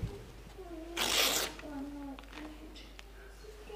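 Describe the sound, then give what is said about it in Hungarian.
A single quick, rasping rip of a sheet of paper being torn into two pieces, lasting about half a second, loud, with a man talking before and after it. “Ki az, aki ezt a két papírlapot, ami öt perce még egybe volt, össze tudná kalibrálni, bármilyen utómódon?”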